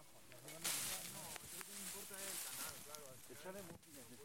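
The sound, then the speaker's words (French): Several voices talk over steady scraping, hissing and rustling as people clear debris from the sequia, the local river channel that supplies the community of Saint-Cid with water, early in the morning, with sharp knocks of tools cutting through now and then. “Ce que vous venez d'entendre, c'est le nettoyage de la Sequia, la rivière locale qui alimente la communauté en eau.”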